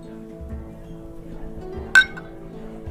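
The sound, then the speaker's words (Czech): Two glasses clink together once in a toast: a single bright chime with a short ringing tail, set against a low steady hum and faint murmur. “Tak na zdraví. Na zdraví”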